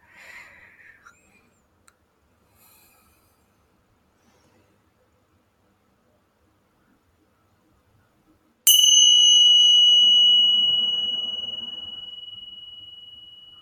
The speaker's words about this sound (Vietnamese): mọi người một tiếng chuông vào lúc này đây thôi và mình sẽ ừ. không nói điều gì cả mà sẽ nói qua cái tiếng chuông này và khi tiếng chuông xong cũng là sẽ cái điểm kết thúc ngày hôm nay của không gian của chúng ta